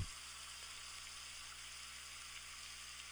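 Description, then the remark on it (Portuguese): Steady, continuous rush of flowing water, like a gently running stream, soft and even throughout with no voices or breaks. “E com esse barulho de água só faz lembrar, como se fosse um curso d'água transparente, relaxante, que só traz sensações muito boas.”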